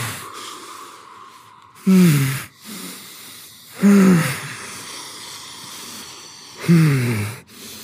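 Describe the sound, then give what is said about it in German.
Heavy, labored breathing of a person sitting in an ice bath: three forceful, strained breaths with a voiced groaning edge, spaced a couple of seconds apart over a steady low hiss. “Ich fokussiere mich auf die Atmung.”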